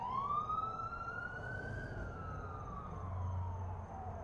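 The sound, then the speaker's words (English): An ambulance on its way to a call wails its siren loudly and steadily as it passes a hospital, its pitch sliding up and then slowly down, over a low rumble of road traffic. “He's going past the hospital to a call. But he turned his siren off way too late.”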